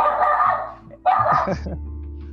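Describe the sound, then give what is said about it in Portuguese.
A dog barks, two drawn-out, whiny barks one after the other, fairly loud over a low steady hum that lingers after the second bark fades. “O cachorro já começou a se manifestar aqui.”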